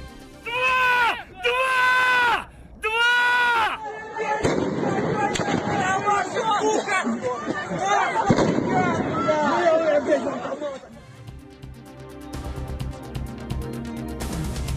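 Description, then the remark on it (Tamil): Sharp gunshot-like bangs and tear gas shell blasts crack through a noisy, shouting crowd of local people as Russian forces fire tear gas shells and shoot to disperse them, following a few loud drawn-out cries at the start; the chaotic babble continues throughout. “உள்ளூர் மக்களை கலைக்க கண்ணீர் புகை குண்டுகளை வீசி துப்பாக்கி சூடு நடத்தும் ரஷ்ய படை”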